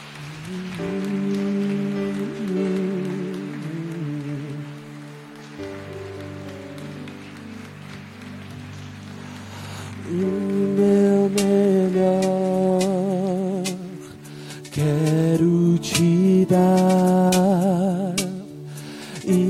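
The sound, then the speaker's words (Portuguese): An audience claps for Jesus steadily in a dense, hissing wash beneath sustained keyboard chords that swell louder in bursts, with no voices standing out. “Aplauda Jesus.”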